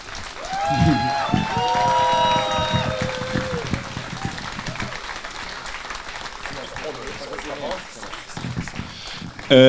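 A crowd breaks into loud applause, with shrill whistles and cheers rising over the clapping early on, then the sustained clapping continues at a slightly lower level, as a musician is called onto the stage.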